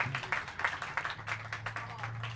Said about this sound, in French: Euh, on peut applaudir. Moi, j'ai le goût d'applaudir à ça.